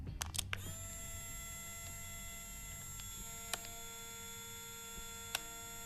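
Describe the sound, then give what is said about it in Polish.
A Polaroid instant camera fires with a quick burst of shutter clicks, then a steady, whining motor hum runs for several seconds as the print ejects, broken by a couple of faint ticks. “Tak, zdjęcie sobie robisz. Tak, Polaroid.”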